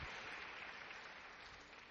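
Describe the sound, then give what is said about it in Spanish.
A Mexican audience applauds a tango performance before the singer's rendition has ended, with steady, dense clapping that holds an even, full level for the whole moment, without any voices. “El público mexicano aplaude el tango como se debe aplaudir antes de que termine la interpretación del cantor”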